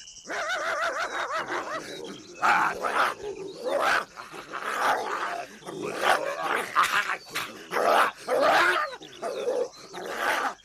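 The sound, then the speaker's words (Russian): A dog barks loudly and repeatedly in quick, uneven bursts while chasing a wolf, mixed with snarling growls and wild animal noises, agitated throughout with no voices. “Волк дали и дали, убежал из глаз мужика, а собака гонится за ним, догонится.”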